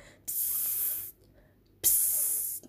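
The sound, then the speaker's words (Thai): A voice imitates the warning hiss a cockroach makes when disturbed, raising its rear slightly: two sharp, breathy hisses, each lasting under a second, separated by a short pause, fairly loud with no talking. “เออเขาก็กระดกก้นนิดนึงอะแล้วก็ส่งเป็นเสียงขู่เนี่ยออกมาเป็นแบบ”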